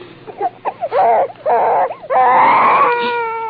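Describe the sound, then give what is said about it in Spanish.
A child cries loudly in a house, wailing in rising and falling sobs that break into a long sustained howl toward the end. “El llanto de un niño.”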